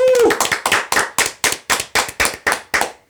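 About a dozen loud, evenly spaced hand claps in a steady rhythm, like a small round of applause, with a brief voiced whoop at the very start.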